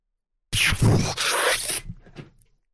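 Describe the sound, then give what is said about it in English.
A loud, breathy whoosh lasting about a second, made by a voice imitating a rushing sound effect for jumping out, then trailing off into softer hissing fragments. “So I'm gonna jump us out. Are you ready for this? Yeah, go for it. Do it. Whoosh. Wait, let's get a better sound effect than that.”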